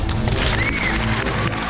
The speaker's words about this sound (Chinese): 现在让我们掌声欢迎他。